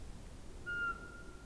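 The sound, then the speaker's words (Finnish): A single clear, steady whistled note from a Eurasian pygmy owl, Europe's smallest owl, about the size of a bullfinch, held for under a second against a quiet, faintly hissing background, with no voices. Heard from a yard in darkness before 5 a.m. in early April, repeated hundreds of times. “Äänessä on Euroopan pienin pöllö, varpuspöllö, vain punatulkun kokoinen, palleromainen, pikkupeto vailla vertaa.”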